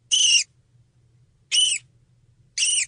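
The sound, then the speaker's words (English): Three shrill, quavering contact calls from a grey-headed flying fox mother, each a short high-pitched squeal, repeating about once a second over a faint low hum. “And the contact calls from the mother sound like this.”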